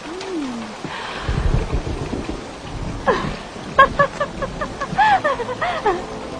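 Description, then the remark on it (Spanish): Steady rain hisses throughout, a dense even patter, while a voice breaks in with short rising and falling exclamations and brief vocal calls over it. “Buah, lo que está cayendo. Detesto la lluvia.”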